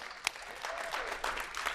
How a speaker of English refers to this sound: Very cool. The round of applause.